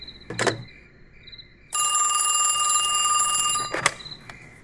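A telephone bell rings in one sustained two-second burst, loud and shrill, framed by a couple of sharp clicks and knocks before and after. No one speaks.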